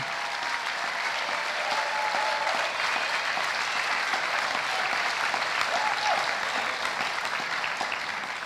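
Sustained applause from a large audience for graduates at the end of an award presentation, a steady dense wash of clapping that holds at an even level for the full stretch without pausing.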